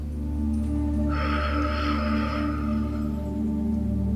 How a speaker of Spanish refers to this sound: Comienza sacando todo el aire de tus pulmones para poder hacer una respiración muy, muy profunda. Todo sácalo.